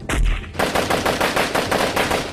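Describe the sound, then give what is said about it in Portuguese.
A burst of rapid gunfire sound effect, police shooting after a car passes them: about a dozen sharp shots firing in quick, steady succession after a low heavy thud at the start. Loud, with no voices. “Os policiais atiram depois que vocês passam”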